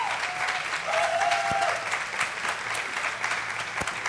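An audience applauds in a dense, steady wash of clapping that holds at an even loudness for about four seconds, with a faint whistle-like tone briefly riding over it early on.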